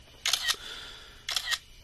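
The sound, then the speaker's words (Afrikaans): Two crisp phone camera shutter clicks about a second apart, each a bright, brief mechanical snap with no talking around them. An old cell phone photographs an expensive German car parked under a tree at a golf course. “En neem daai ou selfoon van jou nog goeie foto's.”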